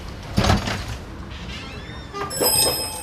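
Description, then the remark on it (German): A white shop door opens with a clunk and rattle, then a small bell above it rings out loudly and insistently in a bright, shimmering jangle that lingers. The shop sells lemon soap. “Beim Öffnen der weißen Ladentür scheppert die Glocke laut und eindringlich.”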